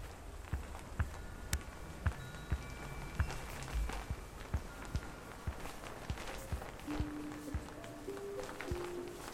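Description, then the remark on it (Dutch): Soft paw steps pad along in a steady, even rhythm, one after another, as an animal moves paw by paw toward a voice, coming ever closer, at an unhurried pace with a faint rustling background and no voices. “pootje voor pootje naar de stem toe bewegen. Steeds dichterbij.”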